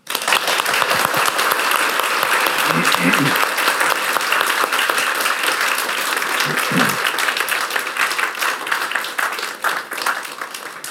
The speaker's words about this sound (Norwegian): Og etter at jeg har sagt litt om de kommende møtene, så skal folk få eh, komme frem og kjøpe bøkene, men du må få en skikkelig applaus først.